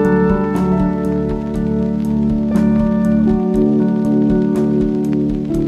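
Steady rain falls with scattered sharper drop taps, heard beneath sustained, tonal music-like notes that hold at a constant loudness throughout; no one speaks.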